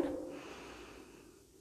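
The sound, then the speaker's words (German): A single long, deep breath drawn in through the nose as a breathing exercise, an airy, rushing sound that starts strongest and gradually fades. It is fairly soft, with no talking. “Atmen Sie durch, durch die Nase ein.”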